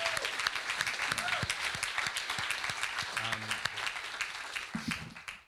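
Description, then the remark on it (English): An audience claps in a sustained round of applause, a dense steady patter of many hands at even loudness, with brief murmurs and a few voices rising through the clapping. “But first of all, round of applause for all you all.”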